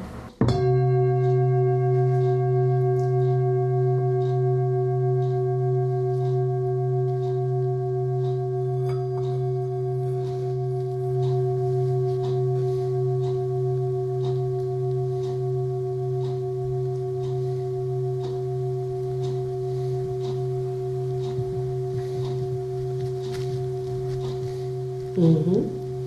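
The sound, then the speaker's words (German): A large singing bowl, about 30 cm across and the size of a soup bowl, struck with a felt-covered wooden mallet, rings out alone in a long, steady drone of layered overtones with a gentle wavering pulse, sustaining for nearly half a minute before a brief disturbance near the end. “So groß ist die. So wie so eine Suppenschüssel.”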